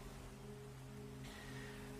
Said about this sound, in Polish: Deszcz cały czas kapie, to znaczy delikatnie pada.